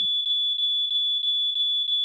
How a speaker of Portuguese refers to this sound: Na verdade tem que sair mesmo, pô. É, quando toca o alarme é obrigado, né?